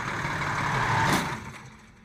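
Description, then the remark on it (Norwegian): A heavy bus engine rumbles steadily on a street in Gothenburg, with a short hissing burst partway through before the sound drops and fades somewhat toward the end. “Men den siste maidagen i 1928, like etter å ha forlatt sitt hjem i den ellers rolige Frølundagatan i Gøteborg, ble han overkjørt av en buss.”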